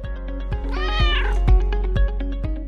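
A cat lets out one long, rising-and-falling meow, clear, while a steady rhythmic thumping pulses underneath about twice a second. No one speaks.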